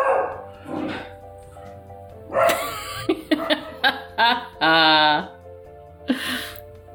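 A dog barks repeatedly, a burst of sharp yaps followed by a longer whining bark and one final bark, with faint talking in the background early on.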